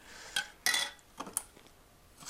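Several sharp metallic clinks of cutlery against dishes while eating lunch, scattered irregularly with quiet pauses between them, fairly soft, with no talking.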